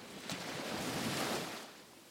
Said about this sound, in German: An dem Tag, als sich alles veränderte, schäumte das Meer besonders stark und der Himmel zeigte sich in einem stürmischen Grau